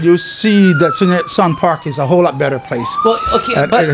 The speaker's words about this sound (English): Oh, you can hear the police sirens in the back.